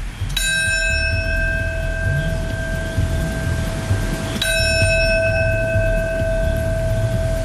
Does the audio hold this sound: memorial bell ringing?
yes